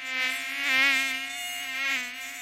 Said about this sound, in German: In der letzten Woche hat es stark geregnet und dadurch ist der Chiemseepegel sehr angestiegen. Im Uferbereich sind Massen von Stechmückenlarven geschlüpft und wenn die erwachsen werden, droht das. Massenweise Mücken.